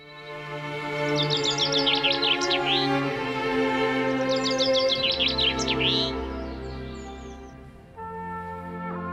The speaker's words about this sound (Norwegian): 'Våren' av Grieg og fuglesang.